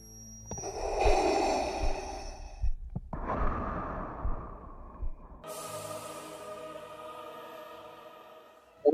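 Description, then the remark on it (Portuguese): A person imitates a friend's heavy, rasping breathing during sleep, likened to Darth Vader, with several long, loud breaths in and out, followed by a steadier, droning tone. “ele tem a respiração pesada, tá ligado?”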